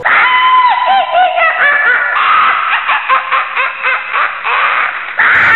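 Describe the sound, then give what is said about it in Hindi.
A witch shrieks from burns after burning coal is thrown at her: loud shrieking and wailing screams with wavering, warbling pitch, almost cackling at times, pouring out continuously for several seconds with no speech. “माँ ने एक थाल उठाया और वह चूल्हे में से जला हुआ कोयला उठाकर उसकी तरफ दौड़ी कोयला उस चुड़ैल पर फेंक दिया आग की जलन की वजह से वह डायन तेज तेज आवाज़ें निकालने लगी”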